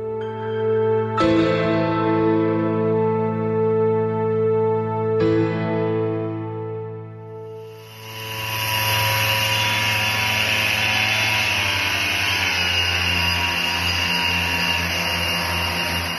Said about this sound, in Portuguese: Esse som que você escutou agora é de funcionários desinfetando a área dos bancos de reservas do Maracanã horas antes do jogo.